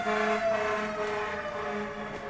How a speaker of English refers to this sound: I'll wait until the siren passes because it's gonna upset me.